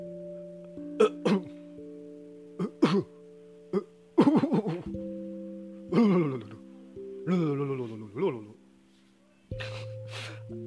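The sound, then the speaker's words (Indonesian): A voice imitates an older man's string of stifled, held-back coughs: short muffled bursts in irregular pairs and clusters, with a few throaty, voiced catches, over a steady low background tone. “tiba-tiba ada suara-suara kayak batuk gitu kan kayak ngeganggu gitu mungkin bapak-bapak ini nahan-nahan batuk karena malu kali ya dia malu takut ngeganggu juga jadi dia batuk ditahan-tahan tapi justru jatuhnya malah jadi tambah ngeselin”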